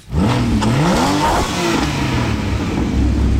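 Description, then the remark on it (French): A sports car engine revs hard, its pitch climbing and dropping in a couple of throaty surges before settling into a loud, rumbling idle. No one speaks. “Euh, il lui faut une voiture de sport. Une voiture rapide. Une voiture de course. Un vrai bolide.”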